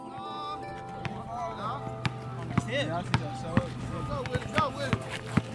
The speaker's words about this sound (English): We wondered how the fist exercise would work with the kids we heard from earlier playing basketball in Dawes Park.